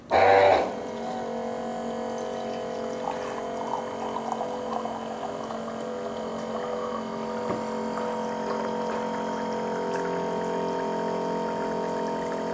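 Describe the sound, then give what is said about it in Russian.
A brief loud click as a button is pressed starts an electric water dispenser pump, which then hums steadily with a stable tonal whine while about 300 milliliters of water stream into a cup for about twelve seconds, no voices. “Вот за это время налилось 300 миллилитров воды.”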